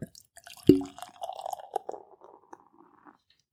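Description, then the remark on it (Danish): A short clink of glass, then beer pours with a gurgling, bubbly glug for a few seconds, easing off into soft fizzing. No one speaks. “Ja, men det, det lød altså godt, da du hældte op.”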